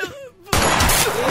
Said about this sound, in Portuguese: Eita porra, começou com um tiro aqui. Desculpa o áudio que vazou agora.